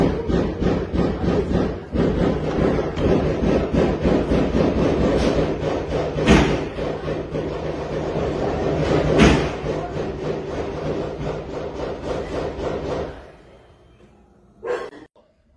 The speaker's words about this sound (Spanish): pues escuchaba los disparos, cómo se escuchan, lo graba un particular, eh, y vemos el movimiento también de las fuerzas del orden allá en San Luis Potosí